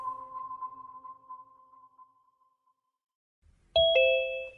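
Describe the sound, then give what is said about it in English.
A fading electronic tone trails off into a brief silence, then a loud two-note doorbell chime rings out, its bright ding-dong tones sustaining to the end. “Ding dong.”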